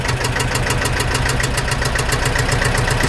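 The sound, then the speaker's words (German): A motor siren runs loud with a steady, rough mechanical drone and a rapid rhythmic pulsing, holding at a fairly constant pitch for the whole stretch, with no voices. “Also du hast die Sirene gut ich gehört.”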